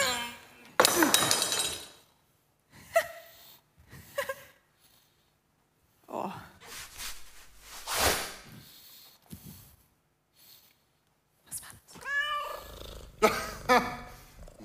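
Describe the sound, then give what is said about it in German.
A stray cat yowls and meows in several sharp bursts, mixed with a sudden crash and clinking like glass breaking, then a final drawn-out, wavering cry near the end. “Da hat uns die Katze aber einen Schrecken eingejagt, ne?”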